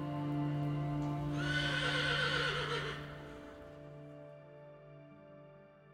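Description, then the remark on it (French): A horse lets out a loud whinny lasting a couple of seconds, its wavering neigh rising and trembling before fading into a quieter, steady background of hooves clip-clopping, with no voices. “rencontreraient Lapin, le cheval le plus malin, ou sa longue descendance.”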